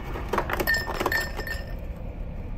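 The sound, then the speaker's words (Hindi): Glasses clink together several times in quick succession as a glass is slid over and drinks of sixty millilitres on the rocks are poured. Bright ringing taps sound over a soft background rustle, fairly quiet, with no voices. “निखिलेश अपना ग्लास राज की ओर सरकाते हुए कहता है मेरा भी sixty M L on the rocks”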